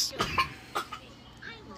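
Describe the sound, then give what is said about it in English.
A boy coughs a few times in quick, forced bursts, fairly loud, the coughs sounding put on rather than natural, followed by a faint trailing vocal sound. “Let's let him fake that cough.”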